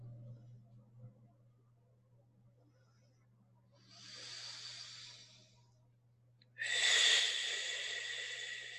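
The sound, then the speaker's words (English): Two deep, airy breaths taken during a meditation: a softer drawn-in breath, then a louder, longer rushing exhale, over a faint low steady hum with no talking. “deeply breathing, deeply being inspired through all of you, through the wholeness of yourself”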